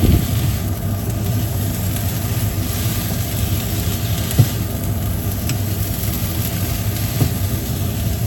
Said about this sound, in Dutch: ik laat dit even bakken en dan, uh, dan is het goed zet de afzuiger aan. Want het zal niet de eerste keer zijn dat het rookalarm dan afgaat als ik aan het koken ben.